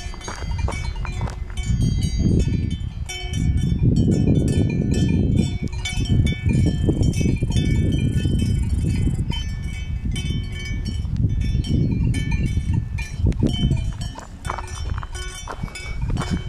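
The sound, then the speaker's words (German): Many cowbells clank and jangle in an irregular, overlapping stream as a herd of cows grazes, with metallic ringing tones over a steady low rumble and no voices. “So, hier hört ihr nochmal die Kuhglocken.”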